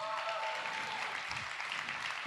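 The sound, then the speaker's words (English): A large church crowd claps steadily and densely for its pastors throughout, with faint whoops and cheers mixed into the sustained applause, which stays at an even, fairly loud level for the whole moment. “Can we make some noise for them?”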